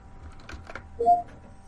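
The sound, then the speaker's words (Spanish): A few quick, light keyboard clicks tap out as a message is typed to Cortana on a Windows computer, followed by a short, soft electronic chime; no one speaks. “Tipea enviar mensaje a seguido por el nombre de la persona en tu lista de contactos y presiona Enter.”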